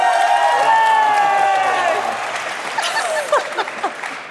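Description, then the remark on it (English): An audience bursts into applause and cheering to vote for team forecasting, with whoops and high-pitched voices shouting over steady clapping that stays loud and then thins out toward the end. “Give them a round of applause if you think.”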